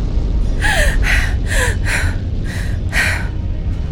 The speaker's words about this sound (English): Abbey sat bolt upright on the bed, gasping for breath.